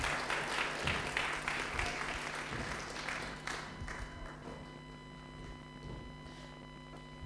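An audience claps in applause for an acting performance, a burst that is strongest at first, then thins out and fades over several seconds.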